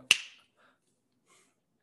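A single sharp finger snap with a crisp, bright attack that quickly fades, followed by near silence and a faint trace of low background noise.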